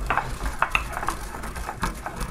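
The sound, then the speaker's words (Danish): Pills are ground into a fine powder in a mortar, with a steady gritty scraping broken by sharp ceramic clinks as the pestle strikes the bowl, with no talking. “Det er en morter, jeg bruger.”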